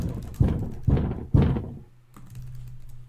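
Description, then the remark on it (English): A head bangs against a wall three times in quick, even succession, each thud dull and heavy, followed by quiet with a faint low hum. “Like, excuse me, let me bang my head on the wall.”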